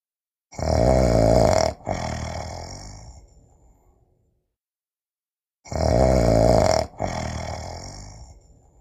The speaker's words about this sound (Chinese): 这时，一位猎人恰好经过，听到了狼 Wolf 的鼾声。他从窗口一看，发现一只大灰狼 Wolf 正躺在床上